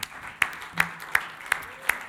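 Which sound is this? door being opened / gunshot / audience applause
audience applause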